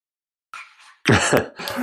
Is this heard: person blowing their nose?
yes